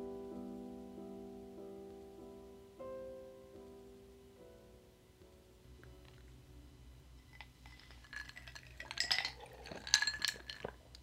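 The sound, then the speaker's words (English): A short musical tone fades out, then about an inch of Stok coffee is poured into a cup with light clinks, the splashing growing louder and busier toward the end, with no talking. “you poured me about an inch of Stok coffee.”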